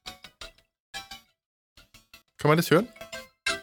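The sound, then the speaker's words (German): An alarm clock set for 14:20 chimes a short melody of stepping tones for about half a second, heard amid a conversation with brief speech before and after it. “Das ist mein Wecker.”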